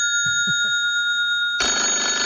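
A telephone rings loudly, with steady high electronic tones joined by a dense buzzing burst of ringing in the last second, after a few low thumps.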